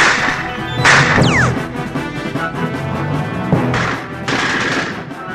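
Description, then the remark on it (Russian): Loud, sharp pistol shots ring out over a busy, noisy background: one early blast, then a pair of quick shots near the end, with a brief whistling sound after the first. A pistol is grabbed from a table and fired point-blank at a Gestapo officer. “Зина схватила со стола пистолет и в упор выстрелила в гестаповца.”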